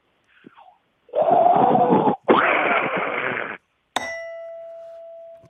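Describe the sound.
Someone mimics a fighter jet taking off with their mouth, making two long, loud, breathy roaring whooshes, followed by a sharp bright ding that rings on.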